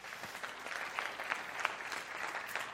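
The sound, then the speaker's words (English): An audience claps to show they have heard stereotypes about the millennial generation, a steady, dense patter of many hands, with sharper individual claps popping out now and then; the applause stays fairly even and moderate for the whole stretch. “Will you clap if you've ever heard any stereotypes about the millennial generation?”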